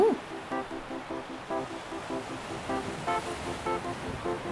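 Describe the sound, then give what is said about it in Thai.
Ocean waves wash and surge in a steady roar beneath a light, plucked melody, gradually building higher, with the surf swelling only gently rather than crashing sharply. “มีเสียงคลื่นเริ่มก่อตัวทำให้กลุ่มดาวชาวประมงตื่นตัว รีบสังเกตการว่ามีอะไรเกิดขึ้นในมหาสมุทรแห่งนี้ คลื่นค่อย ๆก่อตัวสูงขึ้น”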